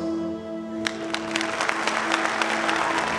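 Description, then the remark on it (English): Audience applause following a reading of a passage from Johnson's History of Rasselas, Prince of Abyssinia, builds from scattered claps into steady, dense clapping over a low background hum, continuing for several seconds with no voices. “There is applause.”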